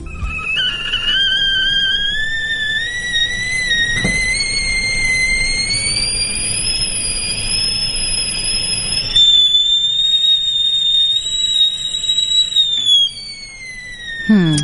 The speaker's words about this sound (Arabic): يا ترى ايش هذا الصوت؟ ايه كل يوم صباح اسمعه كل يوم الصباح تمام براد شاي خلاص على طول اديتني هي انتين البراد يعني؟ ايوه ايوه تمام